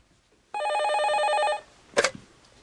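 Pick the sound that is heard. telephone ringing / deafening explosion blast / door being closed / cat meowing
telephone ringing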